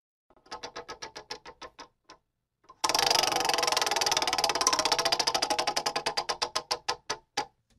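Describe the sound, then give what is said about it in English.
A prize wheel clicks steadily a few times, pauses, then spins hard into a rapid rattle of clicks that gradually slows to separate ticks before stopping, landing on the Miami Dolphins. Fairly loud, with no talking. “I was waiting for the wheel to spit this one out at us”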